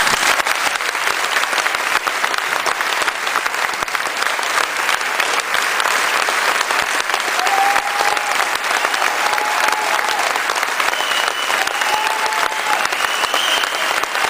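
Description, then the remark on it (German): Sustained applause from an audience following a fan's speech, a dense, steady wash of clapping that holds at a loud, even level throughout, with a few faint whistles or cheers rising above it. “Am Ende seiner Rede bekommt er viel Applaus.”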